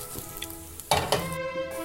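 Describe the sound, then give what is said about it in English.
Chicken seasoned with Old Bay sizzles steadily in a hot pan, a broad crackling hiss, with two louder scraping bursts as it is stirred around. No one speaks. “And, and just constantly stirring and mixing just and about the color, and twirling.”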